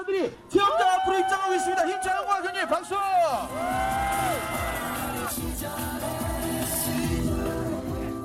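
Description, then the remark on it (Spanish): A crowd cheers loudly for people, children included, entering a calf-deep pool of swimming trout in T-shirts and shorts, with overlapping whoops and shouts rising from many voices, then settling into a steady, noisy roar of cheering and clapping that carries on to the end. “Al parecer, fueron recibidos con vítores y aplausos.”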